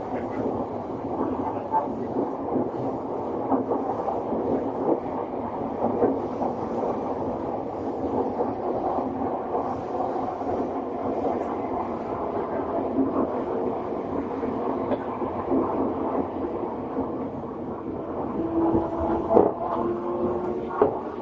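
A Tokyo Metro 7000 series train running between Shin-kiba and Nerima: a loud, steady low rumble with a droning mid-range whine that holds evenly throughout and swells slightly near the end.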